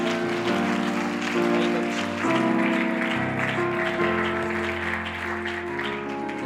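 An audience claps their hands to the Lord in a steady, dense wash of applause over loud, sustained organ or keyboard chords that shift every second or so, with no voices standing out.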